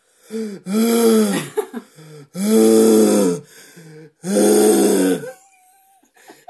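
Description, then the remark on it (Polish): A person mimics the heavy, labored panting of a balloon-sized dog that had eaten a whole pot of leftovers, with three long, loud, rasping wheezy breaths spaced by short pauses, followed by quiet. “Pies jest ogólnie rozmiaru balona, bombla, nie wiem co do tego. I sapie tak.”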